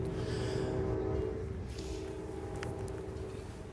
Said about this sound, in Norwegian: Der hører vi eh, toget i det fjerne